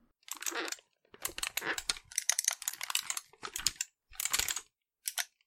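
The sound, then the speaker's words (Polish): Bursts of rapid, dense plastic clicking and rattling come in short clusters with brief pauses as a microswitch joystick is waggled and a wheel is turned, fairly quiet, with no voices. “Zrobiłem tak i zakręciłem kółko. To jest, mój drogi, joystick na mikrostykach.”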